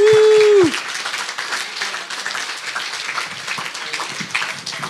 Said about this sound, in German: Wer hat Ihnen noch nicht gratuliert? dann jetzt die Chance. Ein Applaus für die beiden. Herzlichen Glückwunsch.